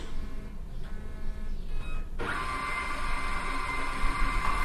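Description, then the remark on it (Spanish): A multifunction printer's scanner carriage whirs back across the glass after scanning a page, a steady mechanical hum that swells sharply partway through and continues, with no voices. “Ya está de vuelta la impresora, puedo abrir ya la tapa.”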